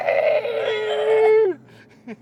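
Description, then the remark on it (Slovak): A voice imitates a squealing pig with one long, strained, high-pitched squeal that holds steady for over a second before dropping off sharply. A faint breathy sound follows. “Zrazu tam kvičí prasa, ako keby zabíjačka bola.”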